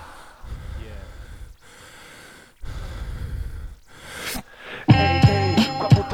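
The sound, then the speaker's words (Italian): Heavy, rasping breaths repeat in slow pulls and exhales, fairly loud, at the end of a song, before a burst of bright music with instruments cuts in near the end. “Per un attimo pensavo che il respiro Fosse eravate nostro.”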